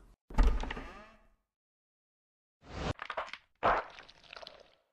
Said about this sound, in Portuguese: Mas, mesmo assim, você decide abrir a porta.